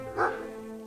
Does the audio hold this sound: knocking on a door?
no